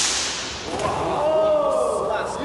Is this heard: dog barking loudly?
no